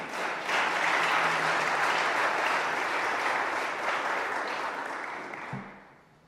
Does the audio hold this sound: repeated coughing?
no